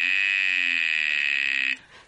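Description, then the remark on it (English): A steady, loud buzzing tone shaped into a bright "ee" vowel, made by a buzzer sent through an acrylic vocal tract tube shaped for the vowel E, with a closed jaw, held for nearly two seconds before cutting off abruptly. “And I also have a tube for E, which is um, the E shape sounds like this.”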